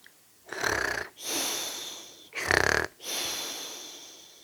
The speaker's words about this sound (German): Hörst du das auch? da schnarcht doch jemand.